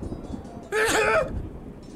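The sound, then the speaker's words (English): A single sudden sneeze bursts out, loud and brief, with a voiced, slightly tonal edge, followed by quiet background rumble. “Sorry, I had to sneeze.”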